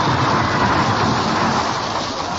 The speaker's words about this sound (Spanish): Estimados amigos, oyentes y presentes. Buenas noches y gracias por esos aplausos. Muchas gracias.